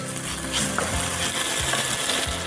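Shredded chicken is lightly sautéed with spring onions in a pan, so that it doesn't remain raw: a steady hiss of sizzling with scattered crackles and a few scraping, clicking stir sounds, fairly loud and continuous, with no talking.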